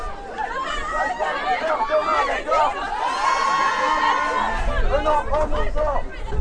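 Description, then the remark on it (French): A crowd of protesting high school students from several high schools of the city, in the street in front of the Porte Jeune shopping centre, fills the air with dense overlapping chatter and shouts, a steady loud hubbub with occasional higher yells and whoops rising above the babble. “les jeunes sont dans la rue, des lycéens de plusieurs lycées euh, de la ville.”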